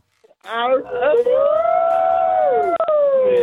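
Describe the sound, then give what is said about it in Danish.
A person imitates a dog's howl with one long, loud, rising then slowly falling vocal wail, starting with a few yelping notes and ending in a sharp drop. “altså, eller, eller en hund.”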